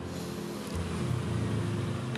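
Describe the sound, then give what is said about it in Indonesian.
A motorbike goes by on New Year's night, twelve minutes past midnight on 1 January 2023, its engine a steady, fairly loud low drone that lifts slightly in pitch partway through, with broad road noise and no voices. “sebagai sponsor ya motor karena ini bener-bener di malam tahun baru aku recordnya setelah jam 12 ya lewat 12 menit jadi ini udah masuk di 1 Januari di 2023”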